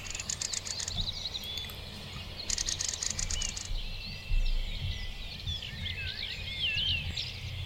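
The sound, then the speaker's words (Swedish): Crossbills give quick bursts of sharp, repeated chip calls early in the morning outside a village with no traffic, while other birds twitter and warble in the background over a low outdoor rumble. “Oj, hör ni? Ja. Korsnäs. Härligt.”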